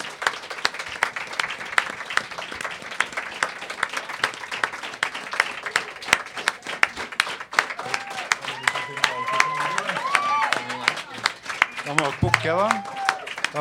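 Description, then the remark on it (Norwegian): A large audience at a psychology event claps steadily and loudly for over ten seconds for the organizing board coming onto the stage, a dense crackle of many hands, with voices calling out and talking over the applause in the later half. “En stor applaus.”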